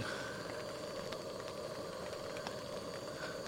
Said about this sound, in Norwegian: Men var det summelyden fra fra Primus. Altså. Det er eh, For meg så er det lyden av sommer.